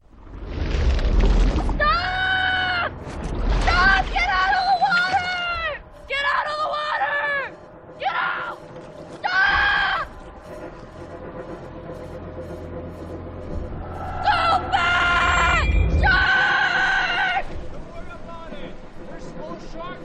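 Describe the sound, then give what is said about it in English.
Actress Blake Lively screams in a shark film, again and again in sharp, high, strained bursts, some long and wavering, others short gasping shrieks, over deep rumbling booms and a constant low roar. “Do you want to hear uh, five seconds of Blake Lively screaming?”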